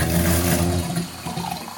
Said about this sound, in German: Okay, jetzt fülle ich mir erstmal ein Glas Wasser ein.